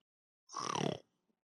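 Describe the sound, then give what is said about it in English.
A single loud, rough snort from a person imitating a warthog, a half-second burst of raspy, grunting noise followed by silence. “did you snort on purpose yes i, I know he's a pig but oh.”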